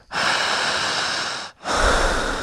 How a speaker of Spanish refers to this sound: Le faltan solamente 13 segundos. Siga respirando fuerte, fuerte, onda, jadeante.